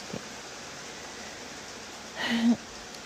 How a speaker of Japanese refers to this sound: でも今日はこんな雨音を聞きながら寝れると思ったらなんかそれだけで幸せな気持ちですやっぱり水の音が聞こえるね雨音がこうやって聞こえるだけでもなんかすごく現れるような気持ちというか潤ってきますね。